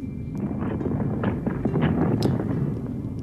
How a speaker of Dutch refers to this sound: Ze hebben de oversteek gewaagd. En ze horen nog altijd de bommen vallen, de kanonnen schieten.